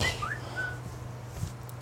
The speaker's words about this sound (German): Irgendwo in der Ecke war ein, ein kleines Vögelchen. Ja, ja, irgendein Telefon hat sich da gemeldet.